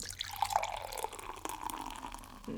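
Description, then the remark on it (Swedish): A 4.8% session IPA with sea buckthorn poured from a freshly opened can or bottle: a steady, fizzy splashing stream of liquid with a faint ringing tone, continuing for a few seconds with no one speaking. “Men du, innan du fortsätter så tänker jag att vi knäcker den här bootprint-apan så du får testa den kul att få din reaktion eh, liksom Live.”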